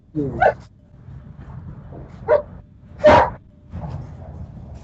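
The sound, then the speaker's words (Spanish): A dog barks excitedly in several sharp bursts, about four yelps and barks spread unevenly over a few seconds, loud, with low background rumble between them. “el mi perro se acaba de poner loco también, güey.”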